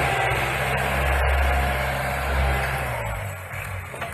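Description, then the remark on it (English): A tractor putting in a dike against floodwaters runs steadily, a loud, continuous low rumble with a throbbing drone and broad mechanical noise, holding fairly constant for the whole stretch with no voices. “Brother Judson's tractor.”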